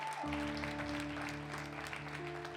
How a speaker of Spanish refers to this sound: Por eso que ven ese arte que hicieron allá en Media, le damos un aplauso a Media. Gracias